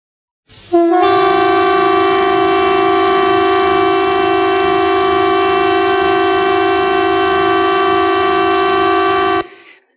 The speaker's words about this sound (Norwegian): På onsdag, altså i går, så testa Sivilforsvaret varslingsanlegget sitt over hele landet. Heldigvis presis klokka tolv. Det forteller oss at det er en test av signalene.